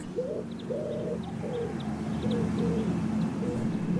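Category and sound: bird, wood pigeon cooing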